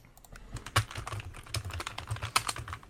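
Rapid, irregular clatter of keys on a computer keyboard, fairly loud, with a few sharper key strikes standing out among the busy tapping. No voices.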